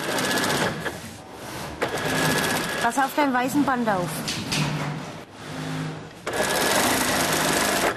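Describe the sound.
A sewing machine stitches a zipper into a sofa cushion cover of upholstery fabric, running in loud, steady whirring bursts with short pauses between them, while a voice speaks briefly over the machine noise.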